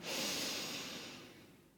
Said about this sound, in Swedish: Och andas in en gång till. Och den här gången andas vi ut genom munnen. Så andas in genom näsan.